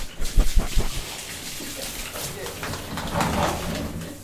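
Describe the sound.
A shower runs with a steady, hissing spray of water as someone gets a quick shower before going into a swimming pool, with a few sharp knocks and splashes at the start and faint voices in the background.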